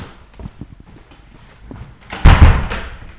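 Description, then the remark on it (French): Soft wooden knocks and footfall-like taps patter through the first two seconds, then a loud, low thud lands on an old period wooden parquet floor with a booming resonance that slowly fades. “Ça c'est du parquet. Parquet d'époque.”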